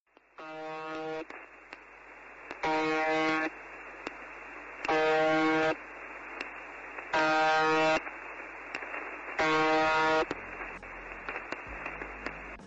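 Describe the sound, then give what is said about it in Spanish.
A harsh, buzzing tone from a shortwave radio station sounds in five evenly spaced bursts, each lasting about a second, over a steady background of radio static and hiss. “Otra vez zumbidos y zumbidos. Para que los oyentes sepan de qué estamos hablando, primero vamos a poner un fragmento.”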